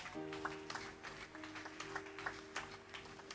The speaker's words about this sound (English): Give the Lord a clap offering.